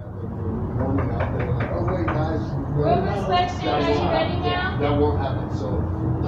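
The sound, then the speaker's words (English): A run of sharp, evenly spaced knocks on a motel room door by City of Denver staff during a room inspection in the first couple of seconds, followed by muffled voices talking over a steady low rumble. “And it, it shows City of Denver staff knocking on doors at the motel, and if there's no answer, letting themselves into people's personal rooms.”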